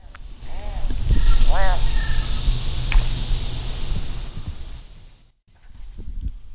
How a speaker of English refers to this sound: that may have been a leopard frog. Yeah, that's a leopard frog getting eaten. Who's eating him? Probably a water snake.